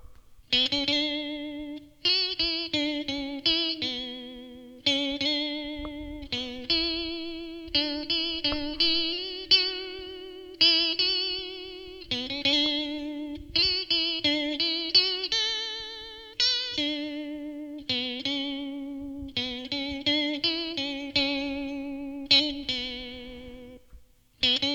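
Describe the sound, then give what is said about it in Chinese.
An instrument played through a pitch-bend effect pedal, a steady run of plucked, distorted notes whose pitch keeps sliding and warping up and down, sounding woozy and unsettled, with no talking. “好了，话不多说了，我们来听听看这个万音效果器哈。”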